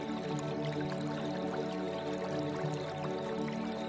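Soft, steady babbling of the gently flowing water of a small brook, a continuous quiet trickle with small splashes and drips throughout, heard alone with no voices.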